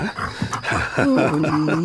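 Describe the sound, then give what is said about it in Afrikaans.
A dog whimpers and whines, begging for a piece of biltong, in high, wavering pitches, a run of pleading cries with short breaks between them, rising and falling over a couple of seconds. “Wat van 'n stukkie biltong my honde?”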